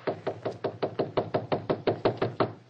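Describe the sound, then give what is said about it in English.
Steady knocking on a wooden study door, about a dozen firm raps in an even, quick rhythm, fairly loud with no voices. “John, open the door.”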